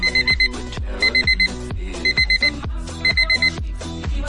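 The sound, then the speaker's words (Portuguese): An alarm clock bought from a street vendor rings loud in repeating bursts of four quick electronic beeps, each group separated by a short pause, over a background of music. “Comprei aqui um despertador no camelô.”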